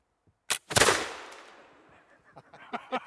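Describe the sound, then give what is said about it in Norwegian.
A musket shot in a shooting test, the shooter standing ten metres away, fires with a sharp crack and a loud, booming blast that rolls off into a long fading rumble, followed by a few faint clicks and small knocks. “Skyteprøve med muskett”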